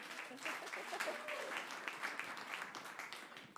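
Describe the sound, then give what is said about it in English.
A crowd applauds steadily, many hands clapping in a dense, crackling wash that holds at an even level for a few seconds before starting to thin out. “Round of applause for Juliet.”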